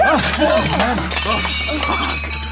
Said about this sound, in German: nachdem sie ein Tablett mit vier Tellern einfach hat fallen lassen